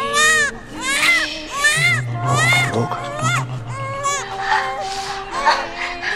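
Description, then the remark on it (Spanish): A baby wails in loud, high-pitched bursts that rise and fall, with a steady low hum underneath and fussy cries continuing throughout. “Si la familia ya ha conseguido calmar al bebé...”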